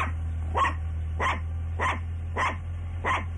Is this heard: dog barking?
yes